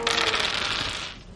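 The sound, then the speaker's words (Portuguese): Three dice are rolled in a game, rattling and tumbling in a continuous bright clatter that holds steady for over a second, then thinning out as they settle showing 5, 4 and 1. No one speaks over it. “Três dados, tu tem ajuda?”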